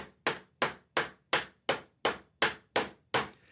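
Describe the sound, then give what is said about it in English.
A hammer pounds a nail into a wooden church door: nine sharp, evenly spaced blows, each ringing out briefly before the next. Loud and steady, with no voices. “nailing something into a church door.”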